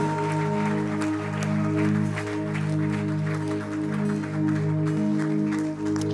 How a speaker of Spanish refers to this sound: Que se escuche más fuerte ese aplauso de ovación a nuestro Padre eterno.